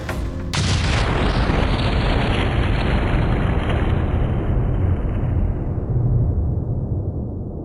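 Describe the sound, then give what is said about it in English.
Sound effect of a torpedo from a German U-boat striking the passenger liner Lusitania, en route from New York to Liverpool: a single massive explosion bursts in suddenly, then gives way to a loud, sustained roaring rumble whose hiss slowly dies away over several seconds. No one speaks. “The Lusitania, one of the largest passenger liners in the world, is en route from New York to Liverpool when it is struck by a torpedo from a German U boat.”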